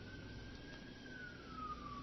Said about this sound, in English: You hear the sirens coming again to get Jolly Joe for that bloody diarrhea.